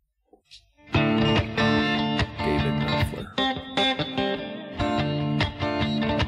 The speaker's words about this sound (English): Get into this guitar track.